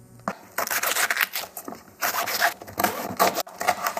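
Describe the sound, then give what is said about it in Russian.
Crisp crackling and tearing as the leaves of 1 kilogram of Chinese cabbage are pulled apart by hand to marinate it, several bursts of rustling and snapping in quick succession with no talking. “Руками нужно отделить листья друг от друга.”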